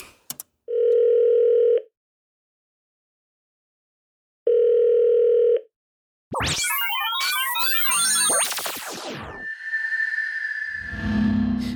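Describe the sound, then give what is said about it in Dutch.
Two long, steady electronic ringback tones of an outgoing phone call, separated by silence, followed by a chaotic burst of warbling, sweeping digital noise as the line connects. “Via FaceTime, via telefoon, whatever lukt op dit moment.”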